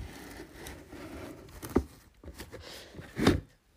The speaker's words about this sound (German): Jetzt hole ich erstmal die Maschine an sich raus.